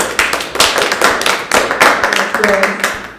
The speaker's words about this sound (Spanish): Y un aplauso, por favor, un aplauso.